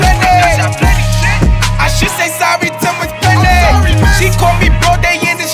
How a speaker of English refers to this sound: That's probably the only time of the night you're gonna hear drill music.